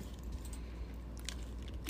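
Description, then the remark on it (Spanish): Someone takes a sip of water on a hot day: quiet, wet mouth sounds and a gulp, with a couple of soft clicks near the end. Nobody speaks. “Perdón, mi gente, me está dando un, trago de agua.”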